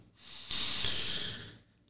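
A slow, deep breath drawn in and let out to calm down, a broad airy rush that swells and fades over about a second and a half, with no talking.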